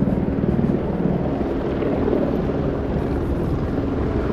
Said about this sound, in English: There's at least one, two, three, four helicopters above. They are close.